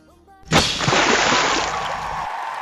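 A person jumps from a platform into water with a sudden, loud splash, followed by a sustained rush of churning, sloshing water; faint voices are heard just before the impact.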